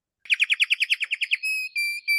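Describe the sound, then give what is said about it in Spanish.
Someone whistles an imitation of a small bird: a quick run of about a dozen warbling chirps, then three long, steady high whistles, clear with no talking. “ahora te imito un pajarito.”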